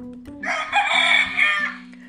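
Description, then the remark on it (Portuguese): A rooster crows once at sunrise, a loud, drawn-out cock-a-doodle-doo lasting over a second, clear over a faint steady low hum. “amanhã, cedinho, quando o sol levantar e o galo cantar”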